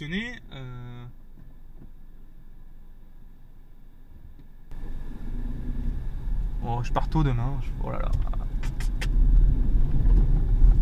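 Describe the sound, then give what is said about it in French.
Low, steady car rumble heard from inside the vehicle as it drives and maneuvers to park, growing louder midway, with a person talking briefly at the start and again over the engine noise. “Tu vois, je te raconte un peu ma vie aussi en voiture.”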